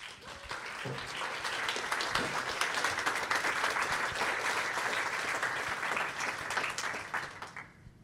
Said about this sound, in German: Bitte Applaus.